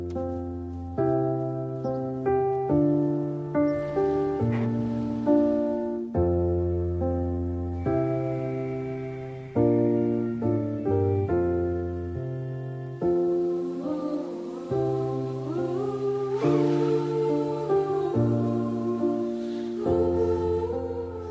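A vocal ensemble sings a slow, harmonized new a cappella arrangement of a song without instruments, sustained chords shifting in steady blocks with a rich, full sound throughout; it accompanies Volkswagen's animated farewell video for the Beetle car.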